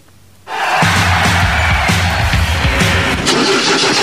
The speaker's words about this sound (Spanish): ¿Y arranca o no arranca? Siempre arranca con bujía Gescher para motores diésel.